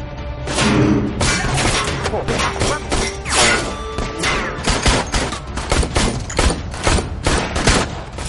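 Rapid, loud gunfire in a shootout as Anacleto stays behind shooting while three others run off, with many sharp shots cracking in quick, irregular bursts along with heavy thuds and impacts, continuing throughout without pause.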